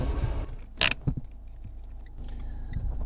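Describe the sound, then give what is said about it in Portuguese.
A car rumbles along steadily on a narrow road overgrown with young eucalyptus before the village of Turgal as a sharp, brief scraping crack bursts out beneath it when a branch lying on the ground gets caught under the car, followed by a few dull knocks and thumps before the engine drone carries on. “Um deles enfia-se debaixo do carro.”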